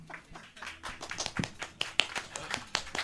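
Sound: audience clapping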